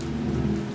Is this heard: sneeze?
no